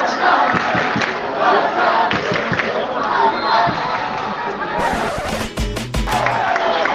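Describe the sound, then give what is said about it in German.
A loud, dense roar of football fans chanting together at a match between Barça B and Castellón, just after the 2-2 equaliser in the 66th minute, fills the whole stretch, steady and continuous, with a few sharp percussive bangs or claps cutting through near the end. “Aber jetzt hört ihr, wer hier jetzt tonangebend ist.”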